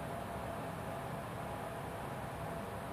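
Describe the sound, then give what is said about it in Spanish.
An electric fan runs steadily, set up to make applied makeup set faster, giving off a constant, even whooshing hum with no change in pitch or loudness, heard on its own without any voices. “Estoy pues nomás sintiendo una plasta, güey, de, maquillaje, güey, que si se escucha el sonido de ventilador, echamos, los pusimos para que el maquillaje fuera un proceso más rápido y se quedara más.”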